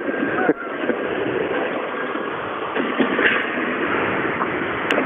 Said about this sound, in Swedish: Ja, och en traktor.